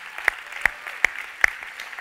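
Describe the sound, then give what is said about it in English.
A large crowd applauds steadily to give praise to God, a dense wash of clapping punctuated by loud, evenly spaced group claps about three times a second, as if clapping along to a beat. No one speaks. “And this might be a good moment just to give him some praise if you'd like to.”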